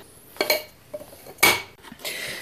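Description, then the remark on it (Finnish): Sarvis Katrilli plastic plates and mugs clatter in a few quick bursts, knocking and scraping against each other, with a louder jumble near the middle and no voices. “Jotenkin kauhean tunnistettava tämä ääni.”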